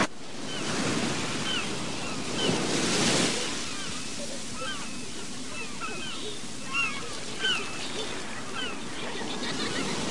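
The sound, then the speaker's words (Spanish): Rough Caribbean sea waves crash in a continuous roar of surf, with one louder surge breaking early on and faint higher chirping sounds scattered above the wash. “mar embravecida, rompe la ola desde el horizonte, brilla el verde azul del gran Caribe, con la majestad que el sol inspira.”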